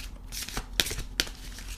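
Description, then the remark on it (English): Tarot cards being shuffled: a soft papery riffle with two sharp, bright snaps of the deck partway through, fairly quiet and with no talking. “i want to pick three cards as to three things that we can be doing to help us through this process”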